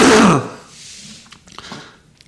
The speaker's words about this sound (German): Hast du gerade gefurzt? Ja, hat man das gut gehört? ja, das hat man gehört.